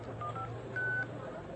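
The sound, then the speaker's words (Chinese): Mobile phone keypad tones as a reply text message is typed: a few quick, mid-pitched electronic beeps, the last held longer, over a low steady hum. “张丽马上给这个马虎的人回了一条短消息。”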